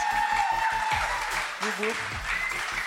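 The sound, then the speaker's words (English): Steady applause fills the scene, a dense wash of clapping with a faint rhythmic thump and a brief voice rising underneath. “Give them a warm applause.”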